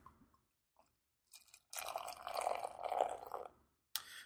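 A brownish beer is poured into a glass, a steady fizzing, gurgling pour lasting a couple of seconds, preceded by a few soft clicks and followed by a brief sharp clatter.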